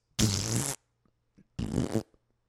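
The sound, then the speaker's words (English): Two loud fart noises, each a buzzy half-second blast, separated by a brief pause with near silence around them and no talking. “Do you think the fart noise?”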